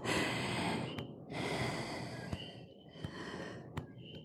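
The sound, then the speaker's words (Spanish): Slow, deep breaths during a relaxation exercise, about three long airy inhales and exhales in a steady rhythm, with a few faint butterfly taps between them and no talking. “También podemos estar orando, ¿está bien? Respirando, golpeando”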